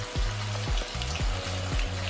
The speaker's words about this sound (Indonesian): Selanjutnya, siapkan adonan campuran tepung dan aneka bumbu serta air dan diaduk rata. Setelah adonan bumbu jadi, celupkan tahu ke dalam bumbu dan goreng hingga kering.